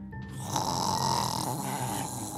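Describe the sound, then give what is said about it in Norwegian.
A voice imitates crackling radio static: a steady, rough hissing and sputtering noise held for a couple of seconds, fairly loud, with no words spoken. “Eh, før de får tørka opp, så hører de en ny lyd, og det er lyden av en radio som skurrer.”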